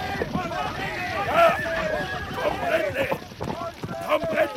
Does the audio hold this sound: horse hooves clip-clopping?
yes